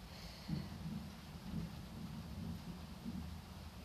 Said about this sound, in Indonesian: oh my god petir lagi I'm so sorry guys I'm so sorry ya yeah.